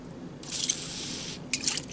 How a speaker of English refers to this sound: Here's the bug spray on the napkin.